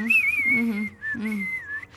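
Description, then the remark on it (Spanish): A loud, clear whistled melody, the theme of a spaghetti western film trilogy, with long sliding notes, a short break midway, then another sustained phrase over a low accompaniment. “Solamente tenemos el silbidito, el...”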